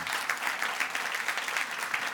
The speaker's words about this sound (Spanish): ¿Por qué no le dan un aplauso a Dios? Porque Él es fiel.